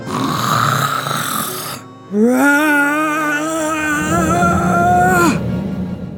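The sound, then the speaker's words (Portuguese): A voice imitates the wolf of the three little pigs tale blowing hard at the eldest pig's strong house: a loud breathy rush of air, then a long, strained, wavering voiced blow of about three seconds, with steady noise underneath. “O lobo pensou que fosse conseguir e começou a soprar.”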